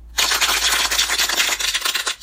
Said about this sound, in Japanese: はい、ありがとうございます。次の目標は2週間ですね。また2週間の時に、えー、この拍手で祝いたいと思いますので